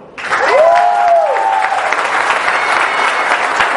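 Sustained audience applause, a dense steady wash of clapping from many hands that starts abruptly and holds loud throughout, with a brief whistle-like tone rising over it early on.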